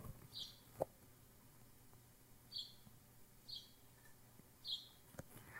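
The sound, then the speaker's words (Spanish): A few faint, sparse chirps from a single bird, four short high calls spaced a second or two apart, against a quiet background hum with no one talking. “O sea, nomás digo que voy a dejar ese puto pájaro hacer sus ruidos por unos segundos y el güey se calla.”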